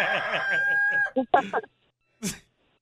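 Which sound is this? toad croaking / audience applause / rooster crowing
rooster crowing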